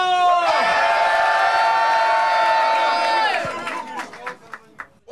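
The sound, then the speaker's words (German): A crowd at an on-beat rap battle erupts in a loud, sustained cheer for a battle rapper, with a steady, horn-like ringing tone for about three seconds, then the noise drops and scattered sharp claps and whoops continue. “Macht Lärm für …!”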